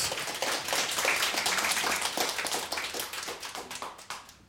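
Applause from a group, a dense crackle of many hands clapping steadily and fairly loud, thinning slightly toward the end with no voices.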